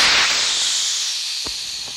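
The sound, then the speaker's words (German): A loud, steady rush of hydrogen gas hissing out of a balloon envelope opened by pulling the rip cord, bright and airy, fading slightly over two seconds, with a couple of brief sharp crackles near the end. “Die Ballonhülle öffnete sich, Wasserstoffgas strömte aus.”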